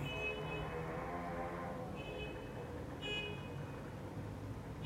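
Dense city street traffic rumbling steadily, with several car horns honking in short bursts over the constant roar of engines. No one speaks.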